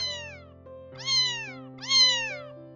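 A cat in a dim corridor meows three times in a row, about a second apart, each call a drawn-out, falling mew, clear, over a steady low hum in the background.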